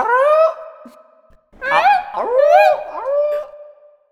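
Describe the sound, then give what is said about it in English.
A voice imitates a varactyl creature call: a loud, howling warble, then a brief pause and a second longer call with rising and falling pitch swoops. No speech. “You should keep the varactyl impression and It was good.”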